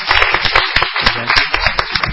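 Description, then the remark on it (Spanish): Applause from a small group in the Radio Nacional LRA1 studio (AM 870, FM 98.7), welcoming guest Jorge Van der Mole, who has just arrived. Dense, fast overlapping claps in an uneven patter, loud and steady for a couple of seconds with no one speaking. “Vamos a aplaudir al señor Jorge Van der Mole, que acaba de ingresar.”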